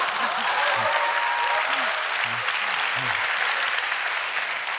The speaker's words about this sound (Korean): 어, 네, 보통 사람들이 이렇게 박수를 쳐주세요. 네, 쳐주시는데 어, 항상 박수 뒤에는 씁쓸한 질문을 하십니다.